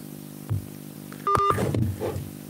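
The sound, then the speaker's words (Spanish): A short electronic telephone tone of an incoming call sounds once, a clear two-pitched beep lasting a fraction of a second, followed by soft muffled rustling and faint background chatter. “Yo estaba apagando el teléfono porque quería nada más despedirme, dar unas palabras finales y llegó esta llamada telefónica siendo tres horas y 22 minutos.”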